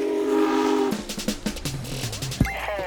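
A train horn blares, then gives way to the rhythmic clatter of wheels over rail joints, with a short, higher whistle near the end; loud, no voices.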